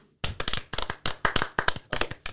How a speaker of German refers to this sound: An der Stelle würde ich sagen, ein aufmunterter Applaus